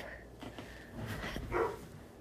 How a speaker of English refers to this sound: so that is Molly, our doggie, and she is barking. And I apologize for her if you weren't able to hear … speak.